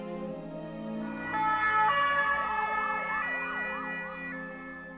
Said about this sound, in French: Maladroitement, il présente quelques excuses à la famille d'Alexia, mais à la fin de la journée, pris d'un malaise, Daval s'effondre il est évacué en ambulance.